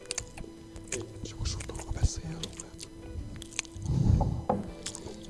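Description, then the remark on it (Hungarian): Fingernails tap and scrape against a glass jar of sourdough in a run of quick, crisp scratches and clicks, with a soft squishy burst partway through and a faint voice murmuring underneath. “ezt a kovászos munkát, és akkor így végig izé a körmét az üvegen, és így hallod így, És akkor így elkezd járni.”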